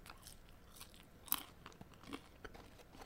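Quiet, crunchy chewing while eating during a livestream: a run of crisp, irregular bites and crackly crunches, with one sharper crunch standing out. No one speaks.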